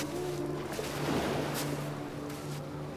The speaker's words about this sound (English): What is that? What's what? Like a foghorn or something? I don't see any fog.